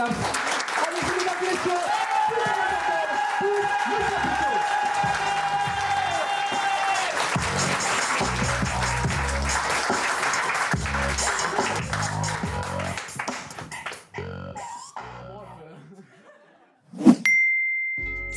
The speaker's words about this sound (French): Vous allez faire des petits applaudissements. D'accord Petits applaudissements. Commencez, allez-y, petits applaudissements. Et plus je vais monter le bras, plus vous allez me foutre le bordel